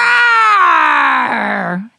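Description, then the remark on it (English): A voice imitates a baby dinosaur's roar in one sustained, strained cry lasting nearly two seconds. It is bright and harmonic and slides gradually downward in pitch before cutting off abruptly. “Then the baby dinosaur joined in. Roar!”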